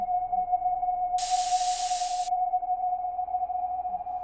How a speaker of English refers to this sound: I'll do a one second air jet and coast the rest of the way.